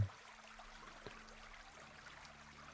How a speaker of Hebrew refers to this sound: אני אשים לכם קצת צלילים ברקע. קצת מים זורמים